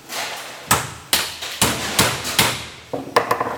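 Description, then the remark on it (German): Someone forcibly breaks something apart with a series of sharp, loud whacks and cracks, about seven hard hits at an uneven pace, with splintering crunches between them and no talking. “Wir haben keinen Schraubenzieher, darum muss ich zerbrechen.”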